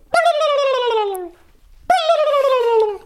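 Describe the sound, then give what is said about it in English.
A person imitates a male turkey's (tom's) gobble, the answer a tom gives to a hen call. The gobble comes twice, each call a loud, drawn-out warble that slides downward in pitch, with a short pause between them and no talking. “And then if the male here uh, hears you, a uh, Tom, they'll go,”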